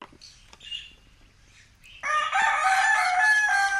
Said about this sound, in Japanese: 鶏とかいろんな動物の鳴き声が聞こえます